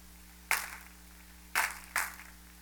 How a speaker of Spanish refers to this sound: Un aplauso al Señor.